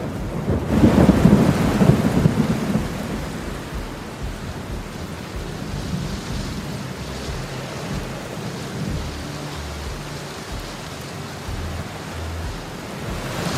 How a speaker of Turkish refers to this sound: Büyüyen damlalar yer çekimine karşı koyamayarak yağmur olarak yere doğru düşmeye başlıyor. Böylece yağmur oluşuyor.